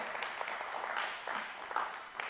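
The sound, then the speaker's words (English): A crowd applauds in a steady, dense wash of clapping, many overlapping hand claps forming a continuous crackling roar at a fairly even loudness for a couple of seconds. “Give them a hand, give them a clap.”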